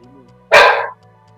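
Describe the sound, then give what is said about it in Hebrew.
A single loud, sharp bark from the speaker's female pet dog, rising abruptly out of a quiet background with a low steady hum before and after. “כן זה הכלבה שלי.”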